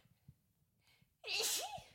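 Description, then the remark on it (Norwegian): A single loud sneeze bursts out after a near-silent pause, a sharp breathy explosion with a brief voiced trailing sound, then quickly fades. “jeg bare må litt nyse igjen”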